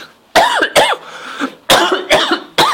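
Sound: coughing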